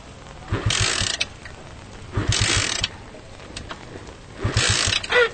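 A motorcycle being kick-started three times, each attempt a short, rough mechanical ratcheting burst with low thudding pulses, spaced about two seconds apart, and the engine never catches.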